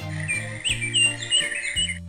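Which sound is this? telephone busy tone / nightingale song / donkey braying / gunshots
nightingale song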